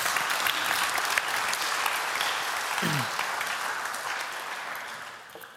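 Sustained, warm audience applause for a woman, a dense crackle of many hands clapping that stays loud throughout and tapers slightly toward the end, with a brief low voice or whoop mixed in partway through.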